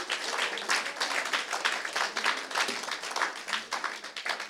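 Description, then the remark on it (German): A crowd gives Jesus a hearty round of applause, clapping steadily and densely, with many overlapping hand claps forming a continuous, bright roar of applause that stays fairly loud throughout with slight swells. “Ihr Lieben, come on, gebt euch Jesus mal einen kräftigen Applaus.”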